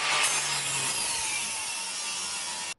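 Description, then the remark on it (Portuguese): A saw cuts into a safe holding an arsenal of firearms in Morrinhos, Goiás, Brazil, with a loud, continuous harsh rasp and a faint low whine beneath, holding steady for nearly three seconds before stopping abruptly. “Uma serra foi usada para arrombar o cofre.”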